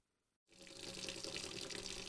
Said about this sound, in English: Mary Margaret stood at the sink, rinsing dishes. Running the water pump doesn't come cheap because our electricity is the most expensive in all of Maine.